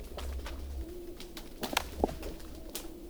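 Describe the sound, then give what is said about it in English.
Frozen lake ice, more than two feet thick, expanding, fracturing and singing: scattered sharp pops and zinging pings with brief eerie tones ringing over a low, steady rumble, fairly quiet and spacious, no voices. “And the sounds that you hear The sounds are ice as it expands.”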